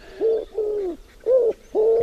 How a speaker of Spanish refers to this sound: La torcaz, Francino, Podemos escucharla en primer término.